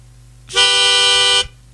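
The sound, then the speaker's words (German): A single loud alarm tone from an odd tuning device, used as a spoiler alarm tone, blares for about a second at one steady pitch, buzzy and horn-like with a rich, brassy timbre, then cuts off abruptly, with no voices over it. “Das ist so ein komisches Stimmgerät, was ich gefunden habe.”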